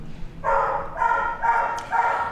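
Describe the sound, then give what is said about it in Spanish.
A dog named Oso barks repeatedly in a steady rhythm in a bedroom in Medellín, four loud, sustained barks in quick succession, with no one speaking. “Probablemente Oso nos vaya a acompañar como cortina de sonido durante un buen rato.”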